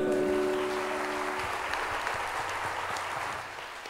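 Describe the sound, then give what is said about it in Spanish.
A church audience at a Christian worship service applauds the Lord together, a dense steady wash of clapping from many hands that holds strong, then eases slightly near the end, with a brief sustained tone underneath at the start. “Le damos un aplauso a Él.”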